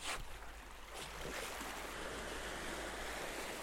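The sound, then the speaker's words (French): A soft, steady wash of water along a sandy shoreline, a gentle ebbing tide at a small tidal coefficient with no wind or swell, hissing continuously with faint swells and occasional rolling of pebbles, unhurried, with no voices. “Mais rien ne cache, rien ne gâche le doux bruit du reflux”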